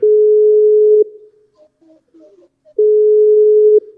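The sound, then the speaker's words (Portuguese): A phone's ringback tone on an outgoing call to a fan: two loud, steady, low-pitched one-second buzzes separated by a pause of nearly two seconds, with faint murmuring voices in the gap. “Vamos ver se vai atender ou não.”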